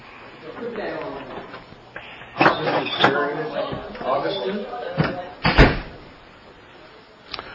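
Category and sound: household object, door being closed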